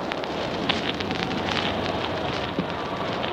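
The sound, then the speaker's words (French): A crowd applauding steadily amid tumult, a dense, crackling wash of many hands clapping at once with no pauses and no voices standing out, as a chapter of canons presents its respects to General de Gaulle. “Vous entendez la foule, la foule qui applaudit.”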